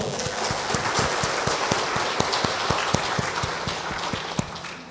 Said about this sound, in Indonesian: Tepuk tangan untuk Papua.